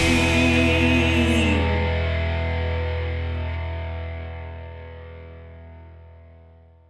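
A song's closing chord rings out on distorted, effects-heavy guitar, sustaining as one steady wash that slowly fades over about seven seconds, with no voices; a song recording played from Bandcamp.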